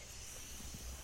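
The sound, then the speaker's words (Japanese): A computer fan whirs steadily in the background, a faint, even airy hiss that holds constant without any change in pitch or rhythm, with no voices present. “パソコンがウィーンって言うじゃないですか。”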